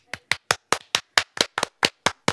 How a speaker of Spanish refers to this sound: Demos un aplauso.